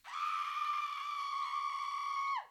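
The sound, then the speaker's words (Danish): The shrill, piercing scream of the witch Medusa rings out among the trees of a deep forest, holding one high steady pitch for about two seconds, loud, then dipping sharply downward as it cuts off. No other sounds accompany it. “Nils og herrefuglen væltede ud af skoven, netop som Medusas skrig gjallede ud mellem træerne.”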